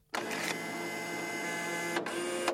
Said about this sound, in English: Cap heard the sound of the machine moving as the man made his choice and pressed the button.